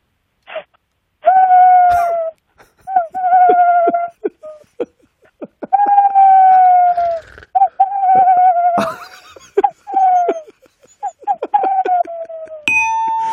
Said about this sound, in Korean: 다음은 그 전설의 고향 땡땡에서 나오는 부엉이 소리입니다. 아, 부엉이, 부엉이 좋다. 네. 부엉. 오랜만에 부엉이 한번 들어봅시다.